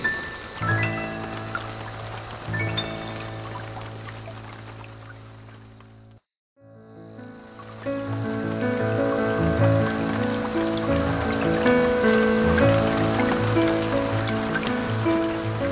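Steady Sawan (monsoon season) rain pattering on hard surfaces, a dense hiss with sustained musical tones underneath, broken by a brief moment of silence midway before the downpour resumes.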